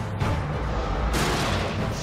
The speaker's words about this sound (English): I think it's on the National Treasure DVD that my dad has. That whenever we play it, it, it has a dark night on sea with the ships and the cannons going off, and it says,